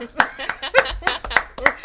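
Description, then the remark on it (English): Six or so sharp hand claps in a quick, steady rhythm, mixed with laughing and vocal sounds between the beats. “this is a clapping podcast today.”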